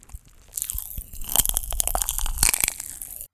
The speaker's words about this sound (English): the pop rocks, of course